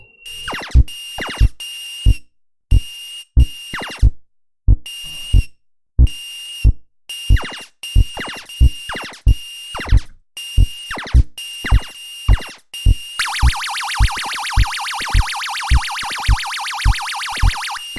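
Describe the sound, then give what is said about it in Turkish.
Retro video game audio: a steady, thumping bass-note background music march plays under repeated electronic zapping firing shots, ending in a loud, harsh buzzing burst over the continuing beat. No one speaks. “tren bacası gibi çıkan ses ateş etme sesi. Onu background'da karıştırmayın. Bob. Bob. Bob falan diye bir şey geliyor. Background müziği o.”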